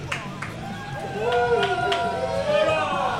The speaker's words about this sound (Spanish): No sé si pediros un aplauso y a las chicas un grito de deseo, por favor.